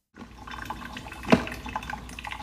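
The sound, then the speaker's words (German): A coffee machine, switched on first thing in the morning, runs with a steady gurgling, liquid hiss and a few faint drips, plus one sharper click or splash near the middle. It is fairly quiet, with no talking. “Morgens wird als erstes die Kaffeemaschine angeschaltet.”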